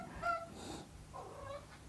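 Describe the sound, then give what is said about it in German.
A male cat meows twice in quick succession, a short higher call followed by a longer, wavering one, fairly soft against a quiet background with no one talking; the cat wants to be let outside. “Du hörst gerade, dass mein Kater einverstanden ist damit.”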